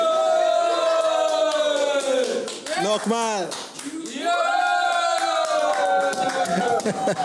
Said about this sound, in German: ich bin heute hier in Rudersdorf im Keller, in der Jugendkeller. Und ich bin gerade mit äh, lauter Jugendlichen hier und wir machen gerade die sogenannte First Friday. Wo ist, wo ist eure Jubel, Leute? Jubel!